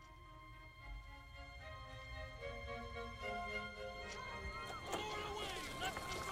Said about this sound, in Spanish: Entonces el barco empezó a convertirse en un caos, en un griterío de gente corriendo y dando órdenes, también de pasajeros pidiendo información o instrucciones.